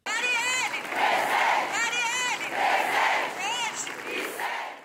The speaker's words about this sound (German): Diese Rufe hört man seit einem Jahr auf den Straßen Brasiliens.